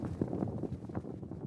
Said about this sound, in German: Also ich nehme zum Beispiel für das Lodern ein dickeres Tuch oder auch ein Leder, gehe relativ nah ans Mikrofon ran und flatter dann relativ langsam ganz nah vor dem Mikrofon mit diesem Tuch. Das würde so klingen wie das Lodern.